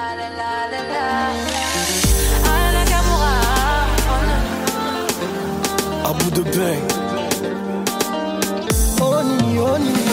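A French pop love song intro plays loudly and steadily, with sustained melodic synth tones, a deep booming bass entering after a couple of seconds, and sharp percussive hits marking the beat; no one speaks.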